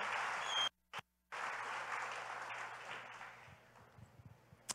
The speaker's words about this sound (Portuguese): Dá um aplausinho para ela, merece também.